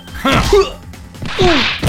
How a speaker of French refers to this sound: Oh, une attaque sauvage euh, hmm. Mais il, m'a donné un coup de poing Et au tapis après une pichenette.